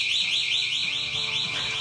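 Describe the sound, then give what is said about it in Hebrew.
An alarm wails steadily throughout, a loud, high-pitched electronic tone that warbles up and down in quick, regular sweeps, several cycles in under two seconds. “אז אני, יש לי הרבה דקות לדבר פה עכשיו עם אזעקה ברקע.”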